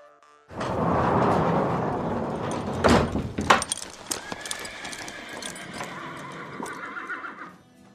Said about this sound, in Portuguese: Vocês estão nos estábulos o chefe da guarda real tá lá ajudando vocês a selar os cavalos, e ele fala: Vossa Alteza, vamos revisar o plano?